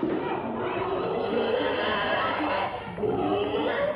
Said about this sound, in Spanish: Por otra escalera interior, tres hombres suben un cerdo vivo que chilla y se resiste.